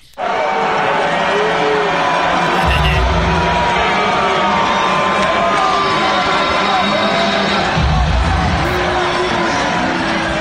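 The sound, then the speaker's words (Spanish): A huge arena crowd at a UFC fight in New York roars continuously at the president, a dense wall of shouting, jeering and booing with many overlapping voices, loud and sustained throughout with occasional swells of yelling. “Le gritaron de todo y ahora fue una pelea de la UFC allá en New York.”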